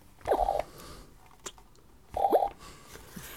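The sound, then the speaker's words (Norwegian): Two short, buzzy fart noises from a squeezed green rubber fart-noise toy pressed by hand in a party game, about two seconds apart, fairly loud, with quiet rustling between and no one speaking. “Frysespø, som er en stor promp en grønn promp som man trykker på. Når man trykker på den, så lager det denne lyden.”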